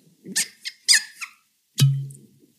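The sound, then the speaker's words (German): Liquor being poured from a specially designed Pandorin bottle: a few short, bright splashing glugs, then one louder gurgle with a low, humming tone that fades out after about half a second. No one speaks. “Ja, äh, gieß auf jeden Fall mal ein. Moment, da müssen wir kurz ruhig sein.”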